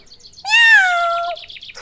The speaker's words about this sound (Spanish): ¡Miau! ¿Ya es hora?